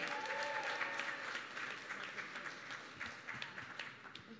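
A crowd applauds steadily to welcome a guest introduced on stage at an event, many hands clapping in a dense, continuous wash with a few cheers, sustained at an even level without fading.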